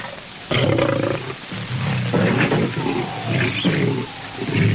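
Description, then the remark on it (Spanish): A lion roars loudly in several deep, rumbling bursts with short pauses between them, continuing through the whole clip with no one speaking, in a Tarzan film scene. “El segundo león ve a una cebra.”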